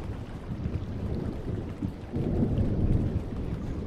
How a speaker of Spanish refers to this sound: Ahora cierra los ojos y escucha el mar.